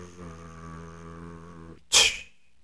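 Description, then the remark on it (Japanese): A voice imitates a drumroll before announcing poll results, a steady rolling trill held for nearly two seconds, then cuts off into a brief, sharp, breathy burst. “結果ですね。ドルルルル”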